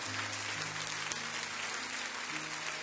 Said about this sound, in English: Clap your hands and rejoice before you sit down right now.